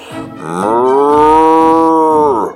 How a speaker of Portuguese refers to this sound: Ele era o rei do pedaço. Tudo e todos obedeciam ao seu mugido. Ele mugia forte.